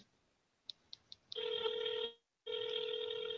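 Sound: phone ringing on speakerphone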